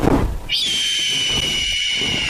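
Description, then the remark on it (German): A shrill, piercing screech of a giant bird as big as a house, sounding down from the sky, erupts after a brief rumble and holds steady and loud for about two seconds, high and harsh, with no voices present. “und auf einmal erschallte ein schrilles Schreien vom Himmel herab.”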